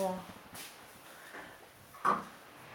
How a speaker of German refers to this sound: Ich mach die Tür mal nur so halb. Dann können die Katzen auch rein.